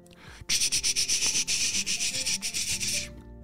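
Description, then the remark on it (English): A toothbrush scrubs teeth in a bathroom in a quick, steady back-and-forth rhythm, about three seconds of bristly, hissing strokes with no talking. “And they started to brush their teeth.”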